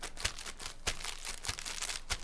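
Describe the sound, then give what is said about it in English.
Plastic bags crinkle and rustle on a studio floor as part of a percussion sound, in a steady rhythmic pattern with sharper crackling bursts roughly every half second, like a percussion beat with no voices. “I, I thought maybe you were just making a mess on our studio floor with the plastic bags, but that was part of the percussion sound.”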